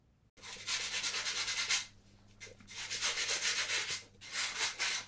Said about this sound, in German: Töpferin, sitzt in ihrer Werkstatt an einem alten Tisch und knetet eine Rolle Ton, trennt ein Stück ab und formt ein Gefäß.